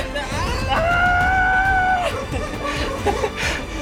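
A neighbors' dog lets out a single loud, drawn-out wail lasting about a second, sustained, with a murky background of noise and faint chatter around it.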